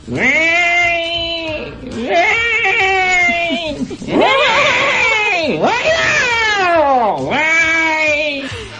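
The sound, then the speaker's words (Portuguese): A voice imitates a cat, letting out a string of about five long, wavering meows with rising and falling pitch, loud, with no other talking. “Parecendo um gato.”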